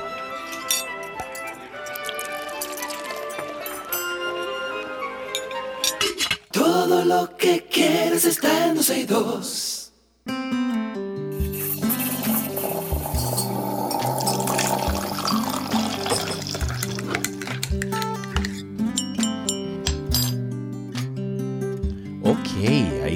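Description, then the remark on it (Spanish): A teaspoon clinks against a coffee cup in quick, bright metallic taps, marking morning coffee time, with liquid pouring, while a voice speaks and a musical jingle plays steadily underneath. “suena ya la cucharita que le dice que estamos en cafecito, que hay que tomarse su cafecito.”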